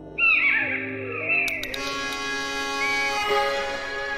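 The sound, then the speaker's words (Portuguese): A single loud, drawn-out mewing cry from a common buzzard, sliding downward in pitch, rings out and then fades into a steady background of sustained tones. “A águia, de asa redonda, aparece então em todo o território continental e é de resto uma das aves de rapina mais comuns na Europa Central e em toda a Eurásia.”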